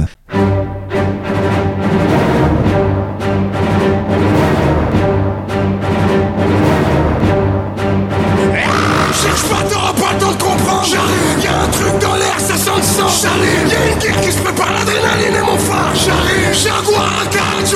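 A loud rap mashup bootleg plays throughout, starting with sustained brassy tones over punchy rhythmic hits, then bursting into a denser, brighter section with shouted vocals around halfway.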